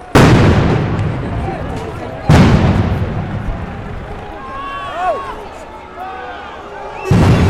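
Three loud, sharp blasts from combined tear-gas and stun grenades go off a couple of seconds apart, each booming and fading slowly, while a crowd shouts and whistles in between. Each grenade has 10 grams of CS gas and a 7-gram charge without TNT, giving 160 dB at 5 metres.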